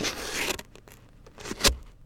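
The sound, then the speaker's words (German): A paper knife slits open the sealed, uncut pages of an art book: a long, dry rasping tear, then a few short scraping cuts ending in one sharper slice, with no voices. “So wurde ein Großteil des Buches mit verschlossenen Seiten produziert, die mit einem Papierschneider von den Leserinnen selbst geöffnet werden können.”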